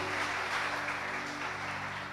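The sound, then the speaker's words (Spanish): An audience gives a loud round of applause to God, a dense wash of many hands clapping at once and holding an even loudness throughout, with a faint sustained low tone running underneath. “Dale un fuerte aplauso a ese Dios bueno.”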